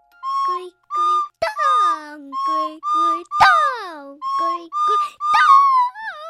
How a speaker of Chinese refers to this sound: 吹笛小狗继续吹着笛子，而所有的咕咕精灵们慢慢的走到怪兽长长的尾巴尾端上，随着音乐往下跳下去。